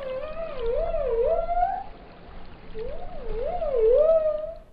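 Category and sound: animal, dolphin clicks and whistles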